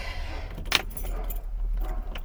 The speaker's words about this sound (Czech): otáčím klíčkem, zkusím ještě našlapat, já už jsem nacupoval do karbecu něco, ale asi 14 dní to nevrčelo.